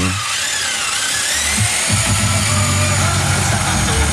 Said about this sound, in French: Allez, il est temps quand même de réécouter euh, ce fameux bruit de la scie sauteuse et cette chanson.